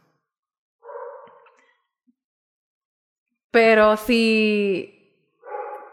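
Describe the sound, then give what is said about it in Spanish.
A loud dog barks in a drawn-out, whining burst, sandwiched between brief snippets of a woman talking. “perdón por los perros.”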